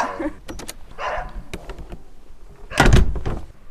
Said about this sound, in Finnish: Koiralla heiluu häntä. Joo, se on Ilmoittaa vaan, että nyt tuli vieraita.